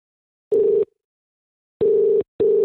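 A phone ringback tone on an outgoing call to a phone in the country with a weak one-bar signal, answered on an iPhone 4: steady electronic purring beeps in a double-ring pattern, a single burst, a pause, then two quick bursts, clear with no talking.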